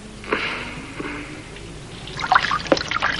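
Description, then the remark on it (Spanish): Water trickles steadily from a washbasin tap, then grows splashier with scattered drips and spatters toward the end. Moderately quiet, with no voices. “Henry Gondorf sale chorreando y abre el grifo del lavabo.”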